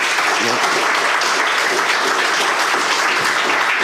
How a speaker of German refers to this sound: Applaus